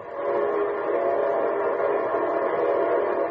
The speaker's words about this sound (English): Say, that's the signal a locomotive engineer blows when his train is approaching railroad stations, junctions, and railroad crossings.